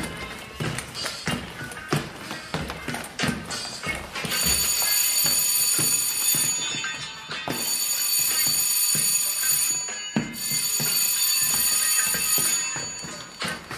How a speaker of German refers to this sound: Das war das dritte Spielzeichen.